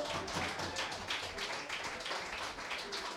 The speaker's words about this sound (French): On l'applaudit. Allez, allez, allez